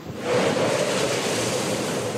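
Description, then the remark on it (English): Heavy storm surf from a nor'easter bomb cyclone pounds the Massachusetts shore in eastern New England overnight, a continuous, loud wash of crashing water swelling quickly and staying intense throughout, with gusty winds near 90 mph mixed in and no voices. “CBS's Mola Lenghi is in eastern New England waves pounded the Massachusetts shore overnight.”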